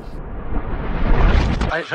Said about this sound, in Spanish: un disparo. Se ha oído un, golpe muy fuerte en la Cámara. La, Guardia Civil entra en el Congreso de los Diputados. Hay un, un teniente coronel que con una pistola sube hacia la tribuna, apunta.